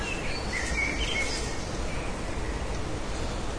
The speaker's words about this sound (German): Ruhig, jetzt kommen die kleinen schwarzen Vögel, ne?